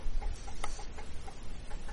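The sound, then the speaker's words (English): Two chickens cluck in short, scattered bursts, several soft clucks spread irregularly over a steady outdoor rumble, not very loud. “Now the chickens can eat that snake.”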